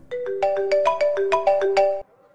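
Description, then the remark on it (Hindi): A mobile phone ringtone for an incoming call plays a quick, bright melody of short stepped tones for about two seconds, loud, then cuts off abruptly with no one speaking. “तभी स्वाति का मोबाइल बोलता है”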